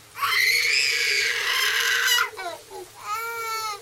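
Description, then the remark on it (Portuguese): A baby cries loudly from inside a house in the rain, one long sustained wail followed by several shorter, broken sobbing bursts, with a faint low hum underneath and no talking. “Enquanto os heróis observam a cena, eles ouvem o choro de um bebê vindo de dentro da casa.”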